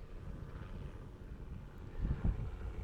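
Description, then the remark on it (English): A helicopter drones overhead as a low, steady rumble, swelling slightly louder toward the end. No one speaks. “Um, hello, helicopter.”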